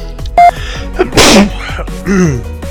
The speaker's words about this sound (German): Ah, oh, da musste ich niesen.